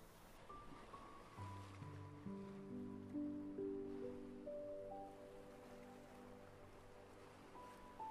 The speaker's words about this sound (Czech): Dnes večer se společně vydáme na cestu, kde zažijeme konějšivou přítomnost mořských vln které nás povedou k hlubokému spánku a regeneraci.